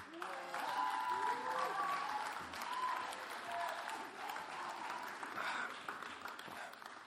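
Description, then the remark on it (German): Sustained audience applause for a person called up to the front, lasting several seconds, a dense steady patter of many hands clapping at once, loud, with a few faint voices and cheers mixed in. “Applaus”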